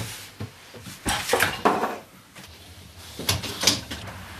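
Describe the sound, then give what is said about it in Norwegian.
A dishwasher's big door being shut after cups or glasses are put in, heard as a series of clattering knocks and solid thuds, with a sliding rattle in between and a final pair of bumps, with no talking. “I don't know, just you have to pull this and put the cups or glasses here and close again and close the big door.”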